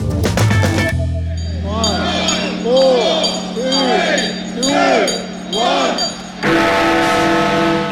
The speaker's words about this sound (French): Minuit à Londres, les cloches de Big Ben sonnent officiellement la sortie du Royaume-Uni de l'Union européenne.